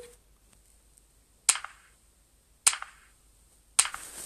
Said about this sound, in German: Okay, einfach klatschen ist jetzt nicht so geil.